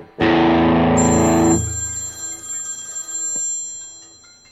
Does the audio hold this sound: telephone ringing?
yes